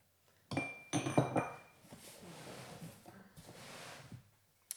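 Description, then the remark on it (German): Glass jars, brought over in two crates by a neighbour to be refilled with honey by a beekeeper, clink and rattle against each other in a crate, a cluster of bright chiming knocks, then quieter shuffling clatter as the jars settle. “Da freut sich der Imker mal, wenn er Gläser bekommt, dann kann er die abfüllen, die Leute kriegen ihre Gläser wieder mit dem neuen Honig.”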